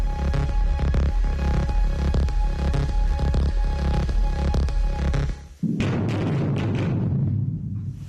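A steady, loud machinery hum drones for several seconds, then a sudden deep blast bursts out as dynamite sticks in drill holes are detonated in a mine tunnel, followed by a heavy rumbling roar that slowly fades.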